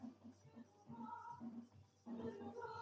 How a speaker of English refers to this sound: When you hear the roar of the lion, hear the roar of the lion, hear the roar of the fire, hear the roar of the lion, hear the roar of the lion, feel the ground.